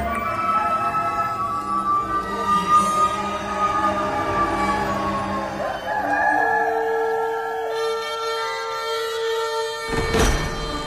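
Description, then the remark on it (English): A rooster crows loudly, its long drawn-out call rising and then falling away over several seconds, with a faint background hum and no talking. “and at once a rooster crowed.”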